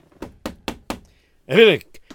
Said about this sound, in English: Let me go back inside the office. Uh, I should knock first.